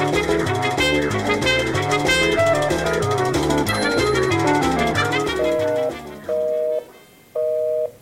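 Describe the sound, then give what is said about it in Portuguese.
A telephone busy signal, heard when calling someone who is on the phone: after several seconds of dense, layered electronic tones, three steady beeps sound alone in an evenly spaced on-off rhythm, clear and fairly loud. “tô tentando falar com a Isolina desde as sete da manhã e não consigo. Porque ela tá na casa dela e ela fica no telefone”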